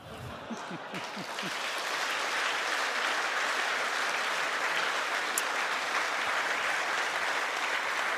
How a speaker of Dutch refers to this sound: maar voordat we afscheid nemen, wil ik eerst een, een mooi applaus hebben voor de Duitse gasten. Die in vertaling naar hun eigen minister moesten luisteren.